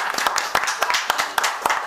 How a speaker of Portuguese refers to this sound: Cadê os aplausos, gente?